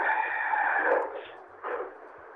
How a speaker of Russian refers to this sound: я не могу перекричать самолет, который летает там на Максе.